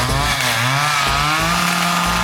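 A chainsaw engine revs loudly, its buzzing whine rising and falling in pitch over a couple of seconds with no one talking.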